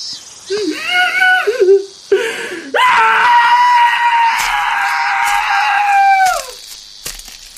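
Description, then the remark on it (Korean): A boy wails and sobs loudly, with short broken cries followed by one long, sustained anguished howl that trails off, then a few ragged gasps, as an older brother cries after being beaten. “등 뒤에서 울음소리가 터져나왔다. 온몸을 쥐어짜는 듯한 오열이었다.”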